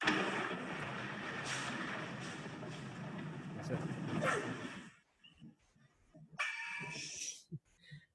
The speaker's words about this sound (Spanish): Ese es un trueno desde mi sala y hizo los que no podía coger. Y se movían las puertas y todo.